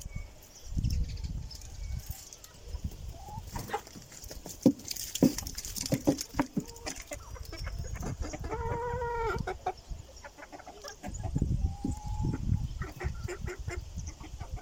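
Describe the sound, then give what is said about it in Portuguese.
A flock of chickens clucks and squawks, with busy patter of feet running around and scattered rustling, the birds sounding excited and crowding in because they expect to be given food. “na verdade eram as galinhas porque elas pensavam que eu ia dar comida”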